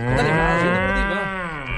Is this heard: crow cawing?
no